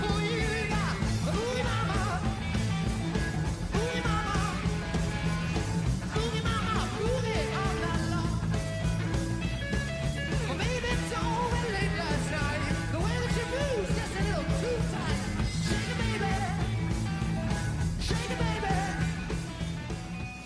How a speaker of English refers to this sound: take a listen to this. This is … with ….